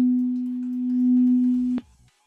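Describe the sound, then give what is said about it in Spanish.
A loud, steady electronic hum holds one pitch for nearly two seconds, then cuts off abruptly with a click, leaving faint low rumbling and near silence. It sounds like feedback or interference on a phone line. “Es que como que se mete interferencia, no sé si, si tengas ahí algún rebote o estemos en altavoz.”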